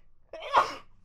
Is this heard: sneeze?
yes